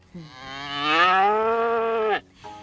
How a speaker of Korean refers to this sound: 산신령은 먼저 소에게 가서 물었어요. 사또를 송아지로 태어나게 해도 되겠느냐? 소들은 콧김을 내뿜으며 싫다고 소리쳤어요.